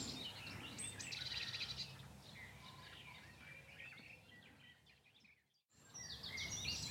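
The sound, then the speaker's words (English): A garden warbler sings a rapid, rambling warble of bright chirps and trills over a steady low rumble of building traffic, with a brief near-silent gap before the song resumes. “Well, the nightingales are being outsung by the garden warblers at the moment.”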